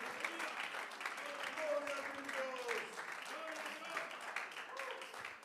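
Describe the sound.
A church audience applauds for God steadily throughout, a dense, continuous wash of clapping with voices calling and shouting over it at a fairly even loudness.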